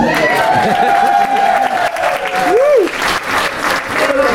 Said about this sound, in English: Can we get a huge round of applause? Keep your clapping up, boys.